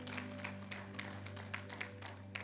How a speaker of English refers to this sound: Come on, y'all give a hand clap for those that made a decision to follow Christ.